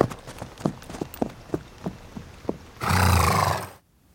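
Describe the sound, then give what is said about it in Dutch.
A horse neighs loudly and briefly near the end, a harsh, breathy burst of about a second, after a run of soft, evenly spaced clopping hoof-like knocks; the neighbours' horses are being brought spent grain from a brewery. “En de bostel gaat naar de paarden van de buren.”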